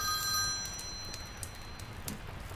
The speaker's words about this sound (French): Il y a le téléphone qui sonne.